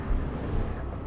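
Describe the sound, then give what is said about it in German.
An airplane engine drones in the sky, a low, steady rumble that holds evenly throughout without breaks or voices. “Ein Flugzeug. Ein Flugzeug? Biaci. War da nicht ein Motor in der Luft?”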